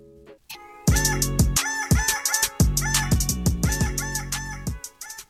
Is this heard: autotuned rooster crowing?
yes